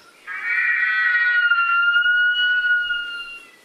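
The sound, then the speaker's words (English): A Haast eagle's (pouākai's) cry: one long, shrill, drawn-out scream that holds a steady, slightly wavering high pitch for about three seconds, loud and alone with no voices. The Haast eagle was the largest bird of prey that ever existed. “The pouākai, or Haast eagle, the largest bird of prey that's ever existed.”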